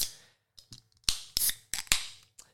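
A Yerby energy drink can being cracked open: a short fizzing hiss followed by a quick series of sharp metallic clicks and snaps, crisp and fairly loud, with no talking.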